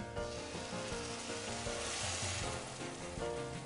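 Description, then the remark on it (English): Steady, dense sizzling of croutons made from leftover sourdough baguette frying in a little olive oil, a continuous crackling hiss that holds at an even level for several seconds with no voices over it. “All I did was cook it in a little bit of olive oil.”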